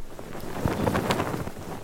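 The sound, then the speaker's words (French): A sail flaps and snaps irregularly in strong wind, with gusty rushing noise across the microphone and a few sharper cloth cracks rising out of the steady blustery roar. “Je dirais une voile, euh, une voile qui faceille dans le vent.”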